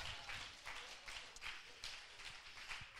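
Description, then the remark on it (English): A crowd claps hands to the Lord in a dense, steady wash of applause, with slightly rhythmic surges roughly every half second and no clear talking over it. “I think we ought to clap our hands to the Lord right here.”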